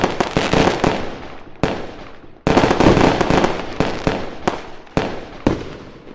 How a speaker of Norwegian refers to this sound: Yes, da skulle vi hatt en sånn eh, et, en smell, et fyrverkeri eller noe sånt. Jeg tipper det går an å, å redigere en sånn cirka her.